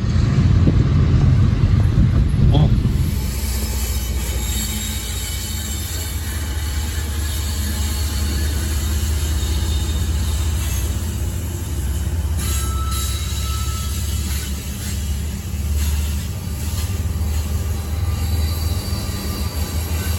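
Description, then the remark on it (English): A freight train rumbles past on the rails, loud at first, then settling into a steady rolling clatter with faint high wheel squeals over the continuous low roar. “feel like it should be a chasing trains video, but it really isn't.”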